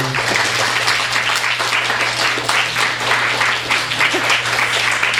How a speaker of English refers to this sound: All right, let's please give a warm round of applause to Esther Pearl Watson.